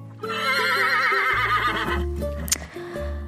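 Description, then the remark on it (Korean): A person playing horse, crawling on all fours with a young nephew on their back and looking up at the ceiling, imitates a horse's neigh with a long, loud, quavering whinny that wavers up and down in pitch, then trails off into a few lower breathy bursts. “그럼 저는 조금 더 빠르게 기어가며 천장을 보고 이렇게 외쳤죠.”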